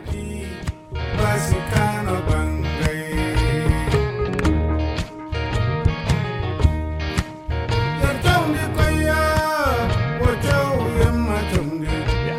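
An upbeat guitar-driven song plays loudly and continuously, with busy, rhythmic guitar lines over a steady bass and percussion groove in a Malian boogie style.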